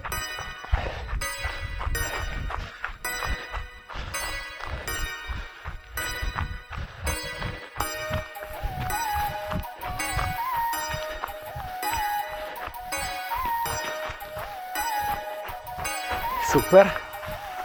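Quick, short running footsteps of a person jogging with small steps under the body, patter in a steady, fast rhythm, distinct, with a continuous tonal background humming underneath throughout.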